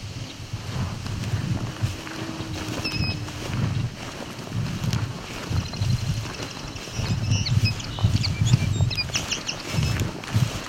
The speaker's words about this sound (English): There's a song sparrow.